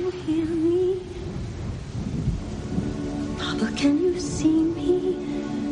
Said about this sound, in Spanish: Llueve.